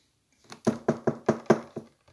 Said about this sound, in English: You're knocking. Knock on another door. You knock. You keep knocking. You knock.